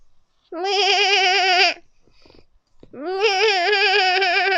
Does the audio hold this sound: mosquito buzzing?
no